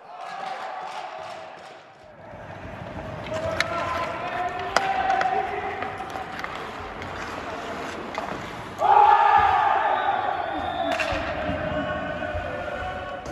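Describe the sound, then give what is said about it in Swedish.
A crowd cheers and roars at a Wednesday team training session in a sustained, dense wash of voices and shouts, with sharp bursts, swelling to a louder surge of jubilant yelling as Joel Nyström scores a penalty shot. “Onsdagsträningen avslutades som ni hörde med ett rejält jubel och anledningen till, ja, den kollektiva onsdagsträningen ska vi säga, anledningen till jublet var en straff eh, som Joel Nyström satte i mål.”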